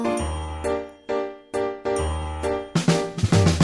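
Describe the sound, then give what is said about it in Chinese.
A doorbell-style chime melody, played on piano by a gentleman: several ringing, resonant notes struck one after another, then a quicker flurry of notes near the end. Fairly loud, with no voices. “钢琴声飘过来，绅士弹奏的门铃声。”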